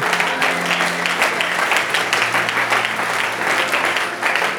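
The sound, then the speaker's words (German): A crowd bursts into sustained, dense applause with cheering mixed in, cheering for Jesus, the clapping loud and steady for the whole stretch without letting up. “Heute Abend wollen wir Jesus zujubeln.”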